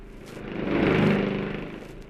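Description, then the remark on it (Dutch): A racing motorcycle roars past on the circuit of Assen on a warm summer day, its buzzing engine note swelling to a loud peak about halfway through and then trailing off, with no voices. “Hij is alweer voorbij, het is crimineel die motorrennerij.”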